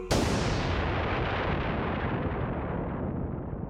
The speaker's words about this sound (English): Oh my, a massive explosion! I better look out the window. There's a bright orangey cloud of smoke in the west, downtown, about where that aquarium with the sharks is located.